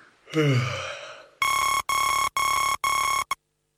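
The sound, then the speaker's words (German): An alarm clock rings with four loud, evenly spaced electronic beeps, high-pitched and steady, then a clipped fifth beep, following a brief sighing or yawning voice sound at the start. “Der Wecker klingelt und schon hat man auf Snooze gedrückt.”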